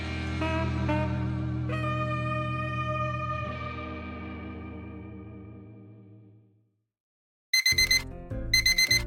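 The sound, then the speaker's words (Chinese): A long, droning electronic chord slowly fades into silence, then an alarm clock rings in two short, loud bursts of rapid, shrill pulsing. No one speaks. “小薇醒过来，把闹钟按掉”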